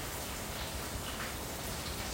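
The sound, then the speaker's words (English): Steady, even rain hisses across the whole stretch, a soft continuous wash of drops with no pauses and no voices. “I love a way of rain in the background.”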